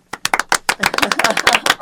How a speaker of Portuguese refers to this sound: Gente, palmas